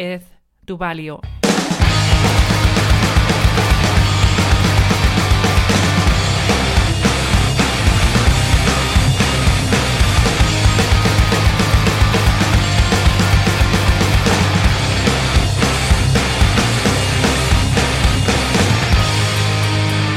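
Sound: punk rock song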